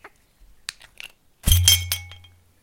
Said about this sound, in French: Mais voilà, aujourd'hui, j'avais envie d'être dans la cuisine. Donc, attention, je vais ouvrir cette bouteille de kéfir.